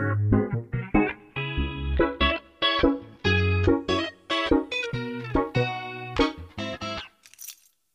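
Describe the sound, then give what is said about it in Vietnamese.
A bright pop track with punchy, rhythmic chords and steady low bass notes plays loudly for several seconds, then cuts off into a brief fading shimmer. “ok vậy thì ngay bây giờ chúng ta sẽ cùng đến với những giai điệu”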